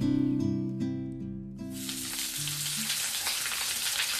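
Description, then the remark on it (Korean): A few seconds of tonal music end abruptly and give way to loud, steady sizzling and crackling of the first batch of chicken frying in oil, a dense hiss that keeps going without a break. “드디어 첫 번째 치킨이 완성되고 있습니다.”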